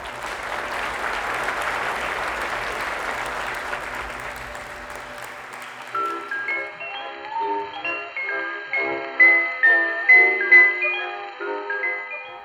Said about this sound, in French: Et le public applaudit.